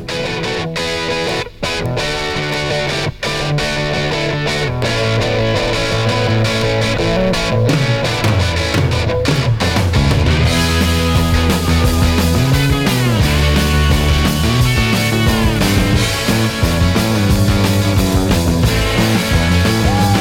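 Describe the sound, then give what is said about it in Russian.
Rock music plays from a vinyl record after the needle is set down and play is pressed, a loud, dense full-band instrumental with a steady driving groove, slightly gritty guitars and a continuous bass line, no talking over it. “вы увидите руки маэстро, ставящего Э, пластинку на, э, вернее, иголку на, на виниловую пластинку, э, и вот прямо сейчас он включает плей.”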